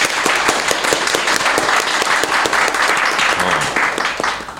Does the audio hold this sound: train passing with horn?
no